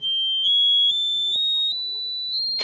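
A piercing, very high note, the highest note on the accordion, is held steadily for nearly three seconds, shrill and bright like a whistle, with only faint low thumps and rustling beneath it.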